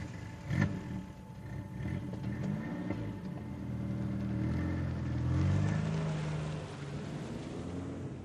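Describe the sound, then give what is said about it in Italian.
A car engine hums as the vehicle drives, its low drone rising and falling in pitch, with a brief thump near the start and no one talking. “Prego, sì, la mia macchina è da questa parte.”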